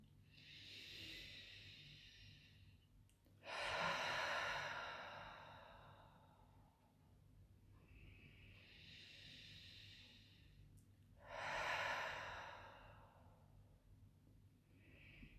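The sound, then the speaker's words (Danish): Two slow, deep breath cycles taken with a hand on the heart, each a long airy inhale followed by a louder, breathy exhale, with quiet pauses between them. “Og en dyb vejrtrækning.”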